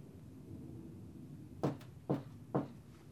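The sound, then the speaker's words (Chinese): Three sharp knocks on a door, evenly spaced about half a second apart, standing out clearly over a quiet low background hum with no talking. “忽然有人敲门了。”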